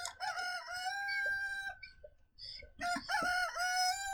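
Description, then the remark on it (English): A rooster crows loudly, two long strained cock-a-doodle-doo calls separated by a brief pause, with no voices over them. “Where, where's my chicken? Oh, there it is.”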